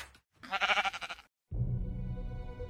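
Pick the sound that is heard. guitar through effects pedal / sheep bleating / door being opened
sheep bleating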